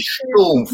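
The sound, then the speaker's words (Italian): A single voice makes a quick, muffled thud-like sound imitating volcanic lapilli from Etna landing, then breaks into a brief laugh. “Esatto, no, in realtà pensavo come quando voi siete lì a fotografare l'Etna o così che arrivano qualche volta lì non la cenere ma la pilli così,”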